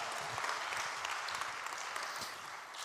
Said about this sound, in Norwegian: Vi gir en svær applaus til Håpets festival. Så bra.